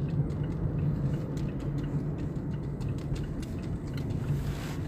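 Steady low rumble of a car interior while driving, a constant engine and road drone with a few faint clicks and rattles scattered on top, and no one talking.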